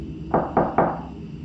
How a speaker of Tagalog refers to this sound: Nabahala lamang ako nang ang kaluskos ay sinabayan na ng tatlong pagkatok sa pinto namin.